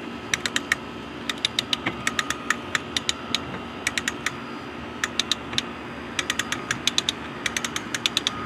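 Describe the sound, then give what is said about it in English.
Rapid bursts of sharp mechanical clicks as an umbrella's ratcheting crank is turned to adjust the umbrella, coming in quick clustered runs with brief pauses against a steady background hum. “I'm sorry, I'm just uh, adjusting the umbrella. That's why you're hearing that sound in the back.”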